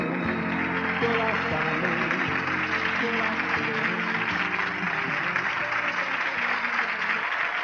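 Sustained applause from an audience, a dense steady wash of clapping lasting several seconds, with faint music still sounding underneath.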